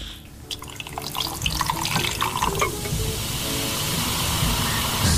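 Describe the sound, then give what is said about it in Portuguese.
Ice cubes tumble into a freshly opened soda can, a quick scatter of hard clinks and rattles over a steady hiss of fizz that carries on after the ice settles. “Agora, no próximo, há gelo a cair.”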